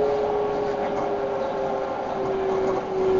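A Keikyu train pulling into platform 1, doors opening on the right: a steady, loud rolling rumble with a constant mid-pitched electric whine running through it, unbroken for the whole few seconds, with no voices.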